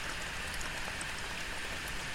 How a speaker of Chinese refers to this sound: 天气凉了，外面有点下雨，滴答滴答的。